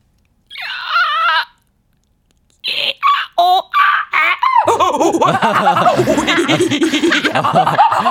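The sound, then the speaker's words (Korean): A voice imitates a window-cleaning gorilla startled by its own reflection in the window: one strained, high-pitched cry, then a quick run of short, sharp vocal bursts, giving way to loud, sustained laughter. “창문 닦는 고릴라가 창문에 비친 본인의 모습을 보고 놀라는 어.”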